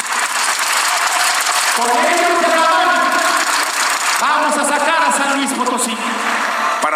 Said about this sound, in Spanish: Aplaudo a la Alianza Empresarial de San Luis Potosí, que está presente el día de hoy. y Les pido un fuerte aplauso para los empresarios potosinos.